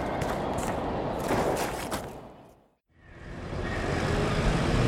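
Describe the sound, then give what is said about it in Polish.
A car driven by an adjutant carries passengers along with a steady, fairly loud rumble of engine and road noise, briefly dropping away almost to silence midway before the droning resumes. No one speaks. “Mój adiutant zawiezie panów samochodem.”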